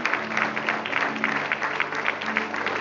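A crowd at a religious service claps steadily in a dense, sustained burst of applause lasting a few seconds, applauding God for a woman who comes forward, with a low hum running underneath and no clear voices.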